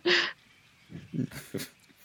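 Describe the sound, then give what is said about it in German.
A person imitates a poodle's snorting: one sharp, breathy burst followed by a few shorter huffing snorts, moderately loud, with no talking. “ein Hund.”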